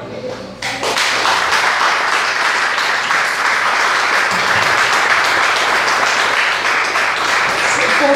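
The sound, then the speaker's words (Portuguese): A crowd breaks into loud, sustained applause after a brief quiet start, dense clapping filling the space steadily for several seconds with faint low murmurs underneath. “fosse vocês, eu não aplaudia. Eu não aplaudia.”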